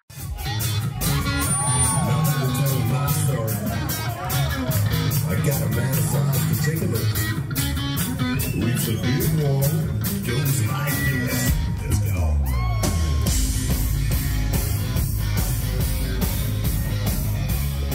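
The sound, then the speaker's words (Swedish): A large crowd of Swedish fans at a concert screams and shouts continuously at full volume when asked what they want to hear next, a dense roar of cheering voices with whoops and yells rising out of it. “Ja, då är det vi svenskar som skriker.”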